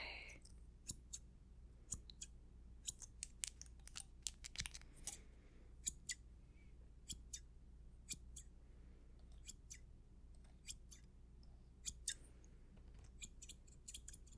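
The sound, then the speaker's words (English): Scissors snip steadily as someone's beard and hair are trimmed before a shave, dozens of quick crisp cuts in irregular bursts over a low background hum, with no voices. “I'm gonna start by just trimming everything your beard, your hair”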